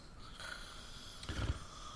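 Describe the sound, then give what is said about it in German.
A person snores once, a short, rough, rasping breath that swells and fades, fairly quiet against a soft background hiss, with no one speaking. “Tun Sie was aus der Spritze aufhört zu schnarchen, ich muss schlafen.”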